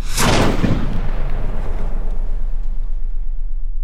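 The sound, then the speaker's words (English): A single heavy cannon blast booms out, its sharp crack giving way to a long, deep rumbling roar that slowly fades over several seconds. “One of the fascinating parts of this to me was the fact that these heavy guns or cannons on ships weren't always used for firing at other ships.”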